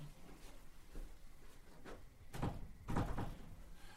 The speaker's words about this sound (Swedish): Ah, är dörren verkligen låst? Du kan själv gå och känna efter.